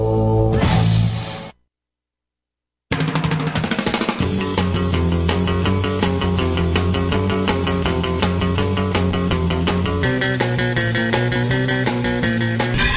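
Loud, driving rock music with dense guitars and steady pounding drums plays as bumper music on The Steve Deace Show, after a short opening burst and a brief moment of silence. No one speaks.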